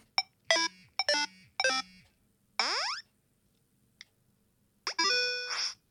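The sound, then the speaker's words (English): Chiptune-style 8-bit sound effects from the 8-bit sound pack of the Clear app: three quick bleepy blips, a rising sweep, a tiny tick, then a bright fizzy chime burst. Synthetic, tonal and fairly loud, with no talking. “Um, but I I bought the 8-bit sound pack and I love it.”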